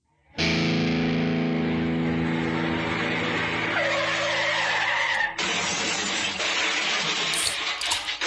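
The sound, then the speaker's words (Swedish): A truck's tyres skid loudly, a sustained screech of about eight seconds, a harsh squealing slide that shifts in pitch partway through, with a rough, slightly distorted edge and no voices. “jag sladdade in med trucken.”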